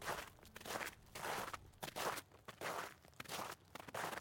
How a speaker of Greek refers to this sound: Τα βήματά μας θα αφήνουν πάνω στο χιόνι τα χνάρια μας, που πάνω σε άλλα βήματα θα έρχονται να χαλάσουν τα δικά μας αχνάρια για να φτιάσουν καινούρια